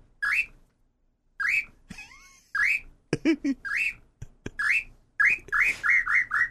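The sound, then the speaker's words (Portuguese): A bird-call whistle, one of a set of four, blown in bursts of bright, rising chirps, imitating birdsong, with a brief laugh and a low voice in the middle, ending in a quick run of repeated chirps. “tá tudo aqui, ó, apito aqui, quer ver, ó? Vamos fazer os passarinhos?”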